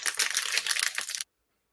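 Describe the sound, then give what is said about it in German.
Continuous rustling of crinkly material like paper or plastic, dense and bright for about a second before stopping abruptly into silence. “ähm, du raschelst”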